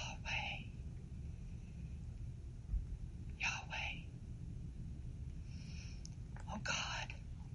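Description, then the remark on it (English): Soft whispered breaths, drawn in and pushed out in short airy bursts, repeating a few times over a low steady rumble. “So we pronounce it Yahweh. Like a breath”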